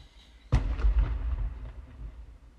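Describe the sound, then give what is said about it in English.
A single firework, set off by people after the Fourth of July, booms with a sharp bang followed by a few faint crackles and a low rolling rumble that slowly fades. No one speaks. “People are still shooting out fireworks.”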